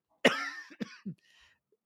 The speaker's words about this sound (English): and I'm and I'm coughing. How unprofessional of me.